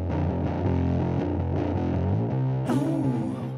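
Loud, distorted rock music with thick, grinding guitars plays steadily with no vocals, then shifts near the end into warbling, squealing high tones over the fuzzy wash as the song winds out.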